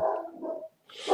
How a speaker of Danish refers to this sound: er det min hund eller din hund? Det er min hund.